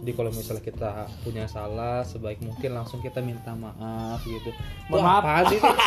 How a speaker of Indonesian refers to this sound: alarm saya alarm weekend saya bunyi ya di sini